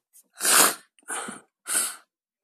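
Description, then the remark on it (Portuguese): Three allergy sneezes in quick succession, each a sharp breathy burst, fairly loud, with short pauses between them and no talking. “Alergia.”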